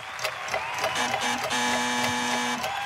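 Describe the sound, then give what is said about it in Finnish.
A game show horn toots after a quiz question on the author of the Kurt Wallander series: two short buzzy blasts, then a longer held low note, over a steady mechanical clatter. No one speaks. “Vallanderin perään tuli on, töötti.”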